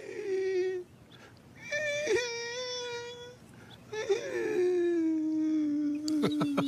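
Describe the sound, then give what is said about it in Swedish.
A person imitates the song of a mistle thrush, a relative of the blackbird, with three drawn-out, mournful, wavering vocal phrases separated by short pauses, fairly loud, ending with a few sharp clicks. “min favorit är väl egentligen en släkting till koltrasten, dubbeltrast.”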